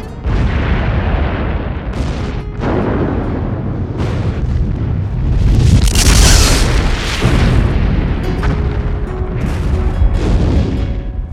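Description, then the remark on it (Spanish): A barrage of loud explosions caused by an enemy missile attack, with repeated booming blasts that overlap into a continuous roaring rumble, one especially big burst near the middle, and no pauses of quiet. “caen muertos en medio de las explosiones.”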